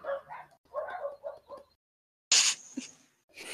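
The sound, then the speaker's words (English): Dogs bark in a quick run of short, sharp yaps, then a pause before louder, harsher barks burst out. No one speaks. “as soon as you said that, they started barking again.”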